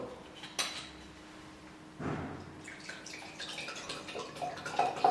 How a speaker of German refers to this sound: Ja, was darf ich da noch ein Ensinger Wasser nachschenken? Ja, still bitte. Still ist auch, ja.